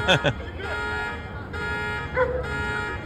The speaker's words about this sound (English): Wow, is right. Set off car alarms. Shook them so hard.